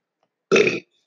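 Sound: burp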